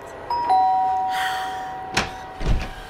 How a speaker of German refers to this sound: Nochmal klingeln, die hören uns nicht.